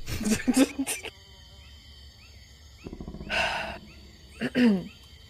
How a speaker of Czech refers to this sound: Ale oni jsou tady. To nejsou draci, to jsou nějaký nemrtví, co pak nepoznáš vrčení draka.